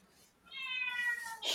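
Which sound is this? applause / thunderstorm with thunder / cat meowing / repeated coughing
cat meowing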